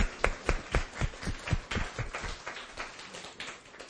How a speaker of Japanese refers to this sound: 皆さんどうぞ拍手を持って迎えてください